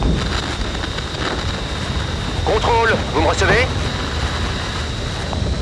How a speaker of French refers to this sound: Grosse galère, on est en train de se faire aspirer par l'orage. Contrôle de Mistral 35. Mistral 35, j'écoute. On est pris dans l'orage. J'ai besoin d'une assistance radar.